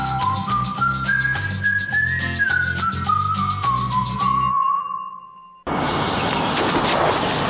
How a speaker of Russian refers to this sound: Я думаю, ты сегодня познакомишь меня с тайваньскими цикадами.